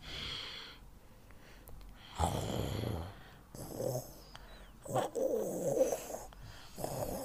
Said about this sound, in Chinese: 好啊，原来是这只大狗，大大狗正在打呼噜。